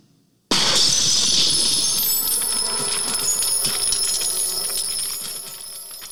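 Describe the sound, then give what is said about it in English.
A sudden, loud crash of falling ice shattering bursts in, followed by a sustained cascade of bright metallic clinking and ringing, like silverware scattering across a hard floor, slowly fading. “like silverware falling on the floor. Mm-hmm. So there is even in that moment that that's not what ice sounds like.”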